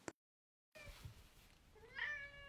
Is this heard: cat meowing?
yes